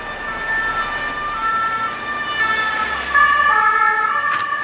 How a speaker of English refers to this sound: that was actually an ambulance going to help Henry